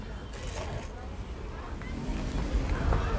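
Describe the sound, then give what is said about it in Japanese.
A car drives past outside, scraping its underside on the road, its low rumbling engine and road noise growing steadily louder toward the end, with no one talking. “すごいなもう下をすりながら車走ってますけどね”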